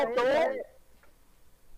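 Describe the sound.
A voice with a thin, muffled, telephone-like quality speaks briefly for about half a second, followed by near silence with a faint low hum and a tiny click.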